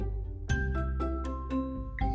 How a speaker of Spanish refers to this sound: Cuando volvió a tocar la campana para anunciar la hora de la salida